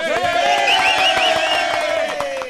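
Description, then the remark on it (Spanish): A group of people shouting and cheering together, a loud, continuous wash of overlapping high voices whooping and yelling that barely lets up before easing slightly at the end. “Ahí están los gritones, ahí están los gritones.”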